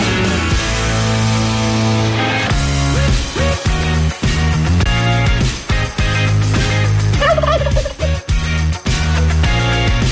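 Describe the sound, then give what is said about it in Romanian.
A loud chorus of turkeys gobbling over one another, the rattling calls rising and falling continuously for about ten seconds without a pause. “Mi se făcuse doar un pic uh, de curcani.”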